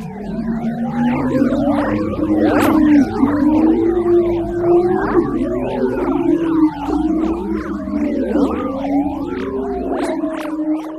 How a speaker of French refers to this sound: Mais là, tempête arrive et ça ressemble à ça. Alors voici la musique de l'aurore boréale.